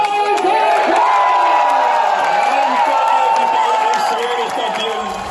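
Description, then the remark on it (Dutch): A large crowd in Schepdaal, Belgium cheers and sings "Remco is van ons" at a celebration of Remco's UCI world championship win, a loud, continuous wall of voices with a sustained chanting melody running through it for the whole stretch. “Ja, er werd gezongen van Remco is van ons.”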